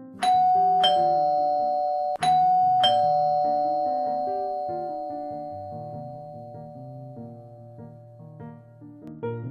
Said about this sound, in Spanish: creo que está del otro lado de la puerta. a ver, están tocando el timbre.